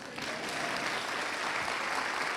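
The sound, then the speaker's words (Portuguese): A church audience breaks into steady applause celebrating a couple's 17 years of marriage, a dense, even wash of many hands clapping at once that holds at a consistent level throughout. “E isso, irmão, pode aplaudir, irmão.”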